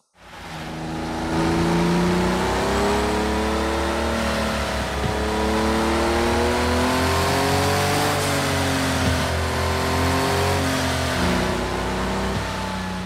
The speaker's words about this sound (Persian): دقت کنید وقتی گاز میده اول صدای موتور میاد بعد صدای چرخش اون پروانه